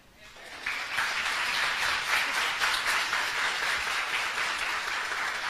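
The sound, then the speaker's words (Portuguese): A crowd at an association gathering breaks into sustained applause for a woman being honored, many hands clapping in a dense, steady wash that rises quickly and holds at an even loudness for several seconds. “Gente, é, eu só quero pedir uma salva de palmas”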